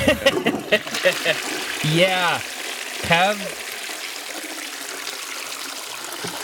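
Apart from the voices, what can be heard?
toilet flushing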